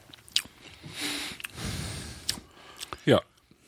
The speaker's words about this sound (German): Ich muss aufpassen, ich fange schon wieder an zu schlucken.